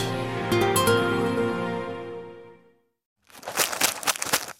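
After a fading tonal chime and a short pause, a one-kilogram paper stock package of sugar cubes is torn open with a burst of crisp crinkling and ripping, lasting about a second and a half.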